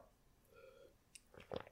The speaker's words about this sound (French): excusez-moi, je bois une petite, euh, petite gorgée